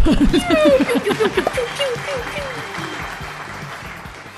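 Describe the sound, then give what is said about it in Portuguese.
A voice imitates a festive town-square crowd celebrating a critical roll in a game: quick, rhythmic, high-pitched whoops and cheers, followed by a softer, noisy hubbub that fades over a few seconds. “Vou fazer o, o, som de, de festejo de praça.”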